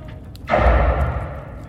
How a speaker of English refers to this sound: Rerouting system to laser cannons. Detaching laser cannons.